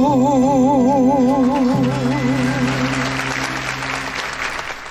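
A theatre audience at the Teatro São Luís, at a tribute show to Hermínia Silva, bursts into loud, sustained applause as a sung note with heavy vibrato fades out. The clapping thickens into a dense, steady roar that carries on to the end.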